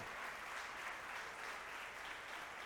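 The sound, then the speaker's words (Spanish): An audience applauds the Lord steadily, a dense wash of many hands clapping at an even level throughout, with no voices standing out above it. “Y dale un fuerte aplauso al Señor.”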